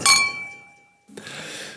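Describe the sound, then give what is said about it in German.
Glasses clink together once in a toast, a bright chime whose ringing tone fades over about a second before a soft wash of background noise takes over. “Prost.”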